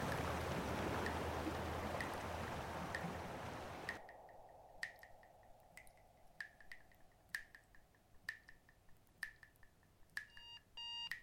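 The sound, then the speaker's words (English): Loud, rushing sea water surges and splashes for about four seconds, then cuts off abruptly, leaving a quiet stretch of scattered short electronic beeps and clicks. No one speaks. “When Pachamama says the last sentence, she splashes the sea and sweeps everything away.”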